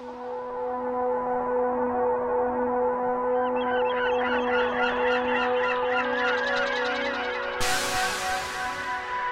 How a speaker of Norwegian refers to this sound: Og ikke minst så er det måker. Måker, ja. Mm. Du skal nå få høre måkene og det jeg syns eh, hørtes ut som en vindaktig lyd i bakgrunnen, men uh, som jeg nå hører at uh, aleine ikke er så veldig vindaktig.